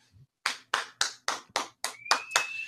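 Audience applause for a guest being welcomed: clapping in a quick, steady rhythm, about eight sharp, evenly spaced claps, with a thin high-pitched tone holding underneath over the last few beats. No one speaks.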